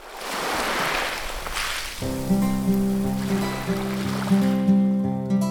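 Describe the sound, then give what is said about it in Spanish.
Ocean waves wash in with a broad, hissing surge, and after a couple of seconds sustained musical tones enter and play over the continuing surf. “Subió mucho la marea mientras dormía y la pequeña piscina se llenó de agua hasta los bordes.”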